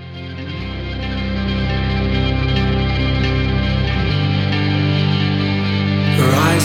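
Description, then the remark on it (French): A rock band's track plays, with layered, effect-heavy distorted guitars holding sustained chords at a steady, full volume. The low end thins out partway through, and a bright, noisy swell arrives near the end. “ils ont sorti la semaine dernière un morceau qui s'appelle …”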